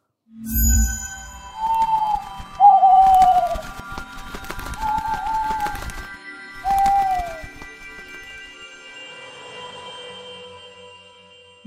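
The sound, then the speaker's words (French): Several short, clear bird calls in an aviary, cooing and chirping notes that rise and fall, come one after another over a few seconds, mixed with soft fluttering and rustling. The calls are moderately loud, with no talking. “Allez, sur ce, nous passons à la volière.”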